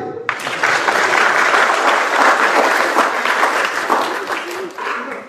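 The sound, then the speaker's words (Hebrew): A crowd breaks into sustained applause, many hands clapping densely and loudly for several seconds, with faint voices mixed in beneath the clapping. “מכפיים.”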